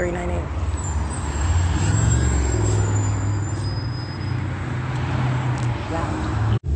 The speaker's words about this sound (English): Omnitrans arriving at 6:52 p.m. this is bus 1327, license one three seven oh